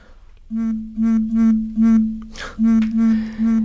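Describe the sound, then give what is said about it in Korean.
A rapid string of repeated electronic phone notification beeps, about seven identical tones in quick succession, as many text messages and missed-call alerts pour in after the phone is switched back on, with a brief rustling noise in the middle; no one speaks. “여러 통의 문자와 캐치콜 문자가 쏟아져 들어왔다.”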